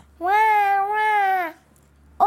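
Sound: baby crying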